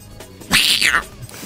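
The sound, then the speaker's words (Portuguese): A single cat meow, loud and close, rising then falling in pitch over about half a second, with quiet background before and after and no voices. “Pois é, esse gato aí é criminoso.”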